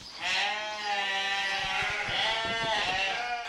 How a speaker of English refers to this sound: This is the South Molton livestock market, very busy, farmers buying and selling sheep today.